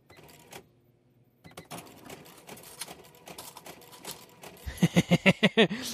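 A modern cash register clatters with mechanical whirring and clicks, then its receipt printer buzzes in a rapid series of loud, even pulses near the end as it prints the last lines of the receipt. No one speaks.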